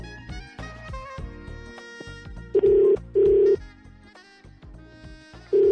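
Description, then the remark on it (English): A telephone rings on an outgoing call placed to wish someone a happy birthday: loud, steady, mid-pitched ringback tones in short bursts, two close together and a third a moment later, over ongoing background music. “Now we are calling”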